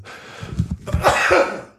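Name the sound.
sneeze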